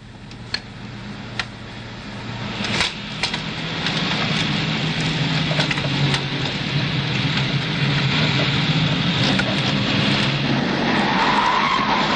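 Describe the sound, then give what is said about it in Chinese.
Tires skid in a long, harsh, hissing screech that swells louder and holds steady, with a few sharp pops early on as a tire blows out because its valve stem was not tightened. No one speaks. “轮胎爆了， 气门嘴没拧紧。”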